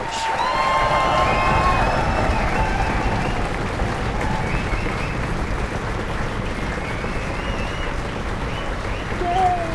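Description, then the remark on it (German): A large audience claps steadily and loudly for about ten seconds for two team members of the hosts, a dense wash of applause mixed with scattered cheers and whoops rising above it. “Also erstmal schön, dass ihr da seid und dieser Applaus hier, der ist für euch.”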